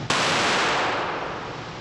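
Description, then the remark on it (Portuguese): A sudden, loud gunshot crack bursts out, followed by a dense, roaring wash of noise that slowly fades over the next second and a half. No one speaks. “Aqui tá vendo só o tiro.”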